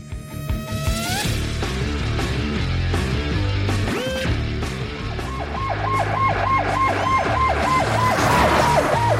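A loud private ambulance siren opens with a rising wail, then settles into a rapid, repeating yelp pattern over a steady low engine rumble.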